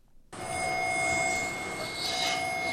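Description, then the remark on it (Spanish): After a brief moment of silence, a subway train's loud, steady roar on the rails begins abruptly, its broad rumble topped by a sustained high-pitched electric whine. No one speaks. “Así es, vamos a escuchar sobre el metro.”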